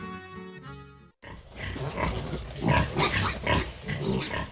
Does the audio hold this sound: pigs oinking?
yes